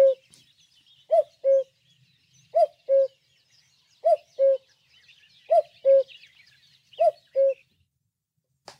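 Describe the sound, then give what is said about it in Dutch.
A common cuckoo calls its two-note cu-coo six times at a steady, unhurried pace, clear, with faint twittering of other birds in the background. “Ik doe nog even de koekoek nu even lekker hard.”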